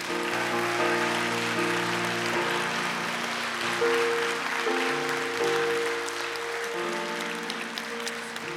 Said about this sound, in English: Let's give our seniors a round of applause.